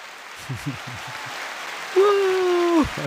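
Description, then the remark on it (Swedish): An applause sound effect, played for an 83-point gameweek score: a steady wash of applause runs through the whole clip, with brief voices near the start and a sustained, droning tone rising over the clapping toward the end. “det där är applåder för min 83-poängare.”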